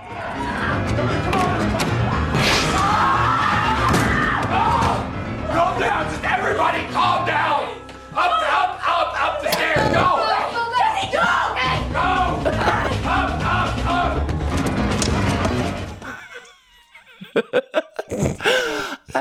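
A man screeches and wails loudly over piano keys being pounded in dense, chaotic clusters, the din lasting about sixteen seconds before breaking into a few sparse, isolated strikes.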